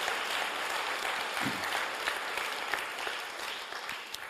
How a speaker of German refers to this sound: Applaus